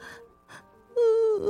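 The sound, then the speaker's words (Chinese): A voice imitates crying sobs: two short breathy, gasping sobs followed by a loud, drawn-out wavering wail that dips slightly in pitch at the end. “鲸鱼侦探听到了阵阵的哭声。”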